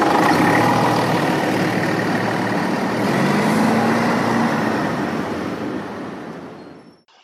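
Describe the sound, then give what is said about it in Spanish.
A bus engine runs with a steady, low rumble and broad mechanical hiss, holding constant for several seconds before quickly fading out at the end. No one speaks. “Corran, corran, chicos, que el autobús ya va a cerrar las puertas,”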